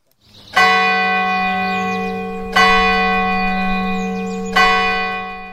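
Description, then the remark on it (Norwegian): A large church bell tolls three times, evenly spaced about two seconds apart, each deep, loud strike ringing on with a long, shimmering decay. No one speaks. “Ja, basert på det eh, Det, eh, det vekket noen bjeller i meg, det der.”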